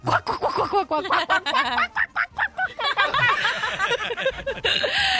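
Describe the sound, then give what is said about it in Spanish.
A person does a drawn-out, wavering vocal imitation of a depressed hen clucking, low and mournful, with breathy chuckles and laughter breaking in around it. “bueno, ok, ¿qué le dice una gallina Hágale deprimida? Como gallina deprimida. ¿Cómo hace?”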